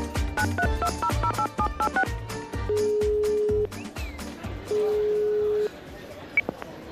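A rapid run of touch-tone keypad beeps in paired pitches, followed by two long steady ringback tones separated by a pause, clear, with no voices.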